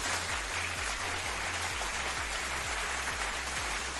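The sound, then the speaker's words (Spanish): An audience at a church Mass applauds for Christ the King, a dense, even wash of many hands clapping that holds at a constant loudness throughout, with no voices. “Dice esta persona, hay algunos que no aplaudimos y por último, un aplauso a Cristo Rey.”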